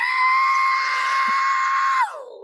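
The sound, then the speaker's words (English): A voice imitates a screeching whistle: a loud, shrill tone held steady for about two seconds, then sliding downward in pitch as it trails off. It imitates the sound of a plane going down in South Carolina, as heard by a man shaving in his bathroom. “And I heard a, a screeching, sorry, between a screech and a whistle.”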